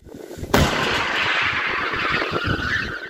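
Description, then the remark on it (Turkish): A single sharp, loud blast goes off suddenly, then a broad roaring wash of sound rumbles on and slowly fades: a hail cannon called Dolu Savar, made in Van, Turkey, by an Iranian firm, firing a sound wave skyward outdoors to turn hail into rain. “Gökyüzüne ses dalgası gönderip doluyu yağmura çeviriyorlar.”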